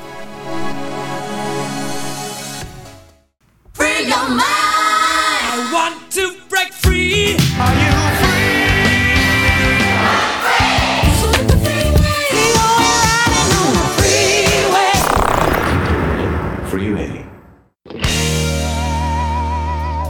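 A loud electronic dance track plays with steady synth chords and a pounding beat, pausing briefly near the start and again near the end before resuming. No one speaks.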